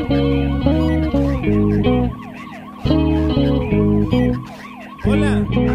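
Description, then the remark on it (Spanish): Wailing sirens rise and fall over a loud, pulsing electronic music intro, the stepped tones repeating in short bursts with brief dips between phrases. “Vamos a escuchar esta canción que empieza, eh, podemos decir, perturbadoramente con un ruido de sirenas.”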